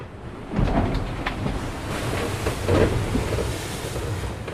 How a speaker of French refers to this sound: Ouh voilà, c'était chaud. Hein. Il y a un grain qui vient de passer. Le bateau est parti au lof. A ah, enfourné, mais il s'est arrêté.